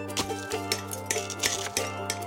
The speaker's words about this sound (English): They hammer Chouinard's steel pitons into the rock and haul themselves higher and higher.